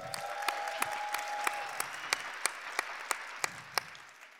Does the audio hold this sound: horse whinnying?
no